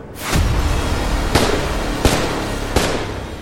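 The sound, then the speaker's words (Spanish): Three sharp gunshots ring out at a steady pace, each a loud, crisp crack over a constant rumbling, noisy background, with no voices; the shots hit a man in the back on the steps of a building on Via Palestro in Milan. “sin apenas percatarse, recibió tres disparos fatales por la espalda en los escalones del edificio y cayó al piso.”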